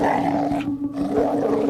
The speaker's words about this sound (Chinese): 他们对着房子发出低低的吼声。